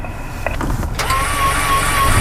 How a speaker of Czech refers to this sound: Kolečko se klopilo do polohy spodní, je přitlačené k betonu a stačí už jenom přidat plyn a dosáhnout požadované rychlosti 65 km hodině.